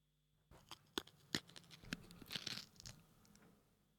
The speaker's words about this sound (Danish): Ja ærtebæl, jeg åbnede